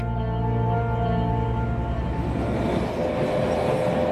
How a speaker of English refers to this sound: Another way to scale the alpine countryside is on the Zugspitze Railway. It takes half a million tourists up the mountain every year.